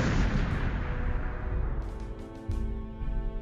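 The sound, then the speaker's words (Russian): Booming artillery salute volleys in Leningrad, celebrating the breaking of the city's siege in January 1944, roll together into a continuous, heavy rumble, with a few sharper bursts near the end, muffled and narrow like an old radio broadcast recording. “«Дорога жизни» и «Дорога Победы», салют по радио”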